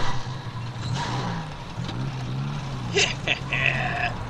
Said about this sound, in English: Lurky was driving extremely fast so that Murky almost fell out, and sometimes the little gloomy guy fluttered like a flag behind the car.